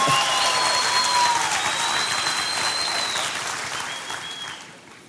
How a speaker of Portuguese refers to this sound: Eu sinto que os casados não quiseram bater palma hoje. vocês estão muito felizes e por isso vocês não quiseram bater. Então vamos bater palmas casados também agora.